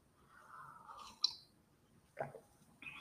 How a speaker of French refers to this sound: Bon, je, vais en avoir, je, vais prendre peut-être une, petite gorgée de café.